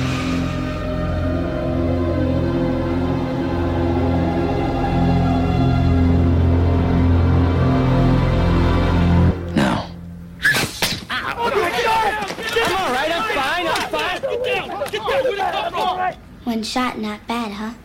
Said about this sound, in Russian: Что здесь слышно? Бамбуковая флейта, экзотический духовой инструмент шалмей.